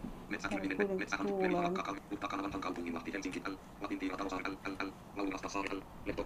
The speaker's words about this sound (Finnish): Eli tämä on siis nopeutettua niin kuin puhetta. Joo, siis tämä on niin puhesyntetisaattori, mikä tota, siis tämän saa säätää itse tietysti sen, millä nopeudella sitä niin kuin kuuntelee.